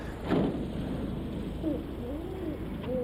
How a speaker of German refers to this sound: Ich landete also auf einem riesigen Platz, den sich offenbar die Tauben als Treffpunkt auserwählt hatten.